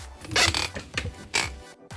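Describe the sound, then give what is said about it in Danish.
A wooden chair creaks several times in quick, uneven bursts, fairly loud, with short pauses between the strained groans and no voices. “Du er jo med mig i dag, fordi du er begyndt at knirke, og jeg vil gerne høre dig først.”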